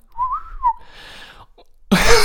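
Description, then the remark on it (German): Someone imitates wind by the sea with their mouth: a wavering, mid-pitched whistle, then a soft breathy whoosh, ending in a short, loud hissing gust of blown air. “Das war der Wind.”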